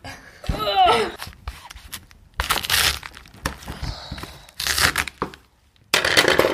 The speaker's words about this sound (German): wir vierteln den Kohl. Ich weiß gar nicht, ob ich das schaffe hier. Ich, ich stech mal rein.